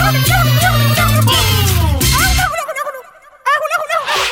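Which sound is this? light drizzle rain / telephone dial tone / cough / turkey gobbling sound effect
turkey gobbling sound effect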